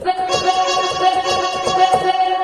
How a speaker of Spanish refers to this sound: Agreguemos una melodía de vocal chops para hacerlo bien moderno.